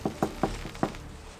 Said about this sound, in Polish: jej głośne pukanie do drzwi gabinetu przerywa Lindbergowi pracę